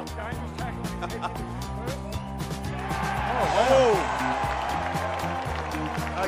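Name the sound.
stadium crowd cheering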